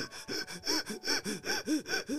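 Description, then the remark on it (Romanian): A person imitates the panting of a small, bow-legged animal born with only one eye: about ten quick, rhythmic breathy huffs in a steady run, moderately loud, with no other talking. “Așa s-a născut el fără un ochi și gâfâia.”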